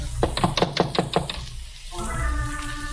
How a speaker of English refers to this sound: I knocked and waited.